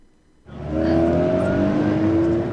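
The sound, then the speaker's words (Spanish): A car engine roars to life and revs loudly as a traffic sound effect, its steady harmonic drone rising and holding strong for a couple of seconds, with no voices present. “Bueno, y el tráfico a esta hora en la ciudad de Manizales”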